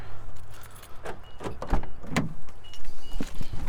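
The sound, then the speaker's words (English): Clattering handling sounds of someone getting into their car: a jingle of car keys, sharp clicks and a thunk like a door latch, over a low steady hum, with no talking. “I suppose I have keys somewhere so that I can get into the car.”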